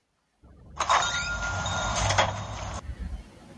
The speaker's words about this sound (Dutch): het is de openen van de deur in de nieuwe Animal Crossing